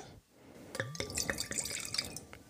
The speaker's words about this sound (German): Es ist also ein Süßwein und ich mache die Flasche gerade mal auf und schenk mir einen Schluck ein.